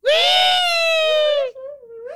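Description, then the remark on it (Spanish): A voice imitates a high-pitched little squeal, one loud, sustained shriek of about a second and a half, tapering into a softer wavering tail. “¿Cómo le hace? como wichi wichi? Un gritito.”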